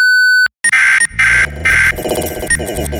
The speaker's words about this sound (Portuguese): Após o bip, o Lepopcast continuará normalmente